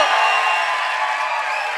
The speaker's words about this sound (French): je veux juste vous entendre une dernière fois là, crier avant que Marc arrive